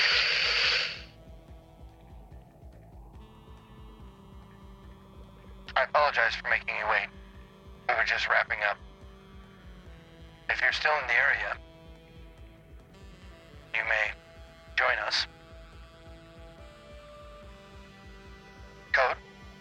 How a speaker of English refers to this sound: I'm only getting static.